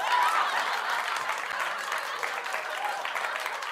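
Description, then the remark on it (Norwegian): Steady applause from a studio audience, dense rapid clapping at an even loudness throughout, with a faint hint of murmuring mixed in. “Jeg syns du klapper for litt rare ting.”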